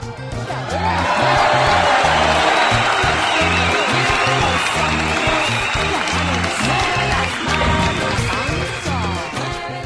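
Loud, sustained applause from a crowd in Atlacomulco, dense clapping filling the whole stretch with scattered cheers and whoops rising through it, steady in volume before easing slightly near the end.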